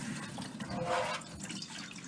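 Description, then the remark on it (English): Water runs steadily and spills over the rim of a full vessel, a soft continuous splashing and trickling, with no one speaking. “See, now it's overflowing.”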